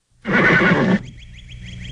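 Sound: horse neighing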